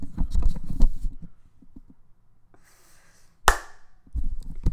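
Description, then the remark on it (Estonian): A single sharp hand clap rings out after a stretch of muffled low rumbling and soft hiss, followed by more low rustling noise. “oota, noh, teeme veel plaksu.”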